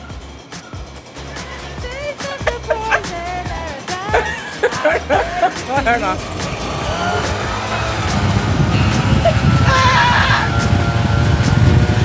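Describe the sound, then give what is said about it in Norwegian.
People talk and laugh over a low hum, then a leaf blower, used to make a wind effect, starts up and roars with a steady, broad whoosh that grows louder through the second half. “Løvblåseren skal jo lage vindeffekt, liksom.”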